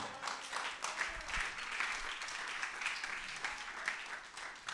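An audience applauds steadily, a dense wash of many hands clapping at once with no clear rhythm, holding at an even level for the whole stretch before easing slightly at the end.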